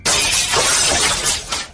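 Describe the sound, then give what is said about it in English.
A large glass skylight shatters as an explosion's shock wave reaches it, with a loud, sustained crash, bright tinkling fragments spraying and cascading for nearly two seconds with no voices. “So you have a perfect view as, almost in slow motion, the shock wave from the explosion reaches the skylight and it shatters.”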